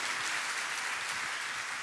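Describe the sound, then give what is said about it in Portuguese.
A church audience claps steadily as an applause offered to the Lord, a dense, continuous wash of many hands applauding at an even level throughout, with no voices standing out. “Dá uma salva de palmas ao Senhor. Mais alto.”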